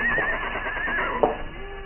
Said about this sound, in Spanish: Los caballos se inquietan, relinchan nerviosos y golpean con sus cascos en el suelo resonando como disparos.